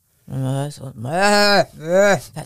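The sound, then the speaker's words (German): A person tries to imitate a billy goat's bleat, producing three loud, wavering vocal bursts, the middle one longest, with a shaky, quavering pitch that comes out more like a sheep. “Nee, das war jetzt mehr ein Schaf. Ich kann nur junge Ziegen, merke ich gerade.”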